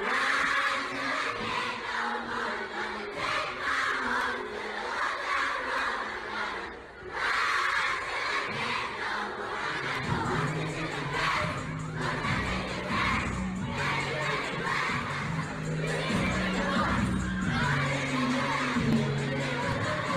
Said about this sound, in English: whenever he shows up at that elementary school then yes. the kid starts screaming